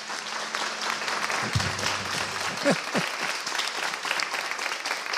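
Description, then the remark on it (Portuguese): Dense, steady audience applause fills the whole stretch, a continuous wash of clapping at even loudness, with a brief low voice-like sound briefly surfacing underneath midway. “Muitos eu, aplausos.”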